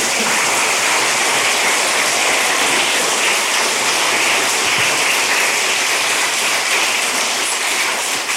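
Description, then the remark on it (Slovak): Sustained applause from an audience at a wedding ceremony, following the groom's vow: a dense and steady wash of many hands clapping at a loud, even level for several seconds, with no voices. “No a aby ten potlesk nebol zbytočný, ideme pokračovať.”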